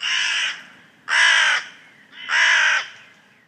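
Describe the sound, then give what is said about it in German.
Three loud, harsh raven caws ring out one after another at a steady pace, each about half a second long and separated by short pauses, with no talking. “Und sie heißt Der Rabe mit dem silbernen Schnabel.”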